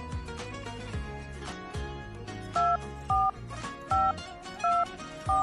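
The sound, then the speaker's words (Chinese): A radio host dials a listener's telephone number during a call-in segment: five short touch-tone beeps at a steady pace, each a clear dual-pitched electronic tone, playing over continuous background music. “好，我们来看一下这个美嘉乐这位朋友的电话能不能打通。”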